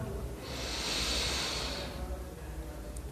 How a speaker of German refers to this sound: Wir nehmen gemeinsam den ersten tiefen Atemzug und atmen ein.